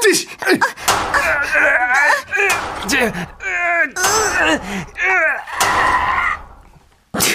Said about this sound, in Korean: 그 와중에도 마지막 소리 뭐야? 팔뚝에 튀어나온 힘줄을 여자친구가 볼까봐 온 힘을 다해서 문을 열었습니다.